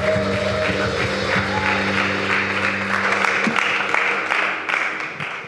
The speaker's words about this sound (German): Gebt einen großen Applaus.